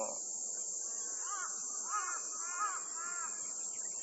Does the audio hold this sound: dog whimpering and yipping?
no